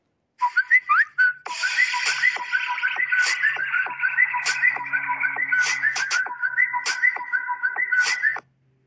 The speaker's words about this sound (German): Ah, du blödes Handy, ey. Äh ja, ich frage ihn mal, äh, Handy, bester Deutschland-Klingelton ever.